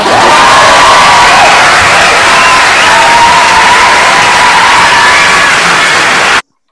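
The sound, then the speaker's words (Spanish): Loud, dense crowd cheering and applause with shouts and whoops, a steady roar of many voices that fills the whole stretch and then cuts off abruptly. “ah, pues los aplausos no pueden empezar ahora, todavía, todavía producción.”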